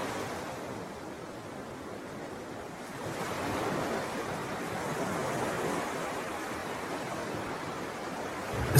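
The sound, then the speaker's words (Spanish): Ocean waves wash in a steady, broad roar of surf that swells louder after a few seconds and stays full, with no voices, just continuous rushing water. “escuchas el oleaje.”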